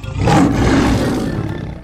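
A lion gives one long, loud roar, a deep rumbling growl that holds steady for about two seconds before easing off slightly at the end, with no talking.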